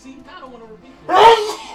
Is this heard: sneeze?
yes